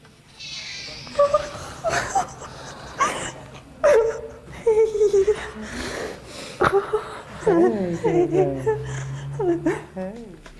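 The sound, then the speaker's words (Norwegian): A woman sobs in broken, wavering bursts as she and her husband meet their twin babies, born to a Ukrainian surrogate mother, for the first time, with catching breaths and gasps between uneven crying sounds over about ten seconds. “Ja, den som hikster her, det er deg”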